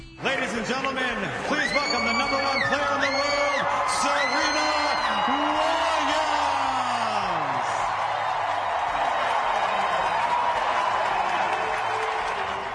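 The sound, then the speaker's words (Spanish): A huge stadium crowd roars in a sustained ovation for Serena as she comes out of the locker-room tunnel after 14 years, with loud cheering, whoops and applause filling the space continuously, dense, with individual shouts rising above the wall of noise. “Serena salió en medio de esta tremenda ovación que escuchamos, yendo directa hacia su silla a prepararse, conteniendo las lágrimas como podía, algo que su madre en la grada no lograba conseguir.”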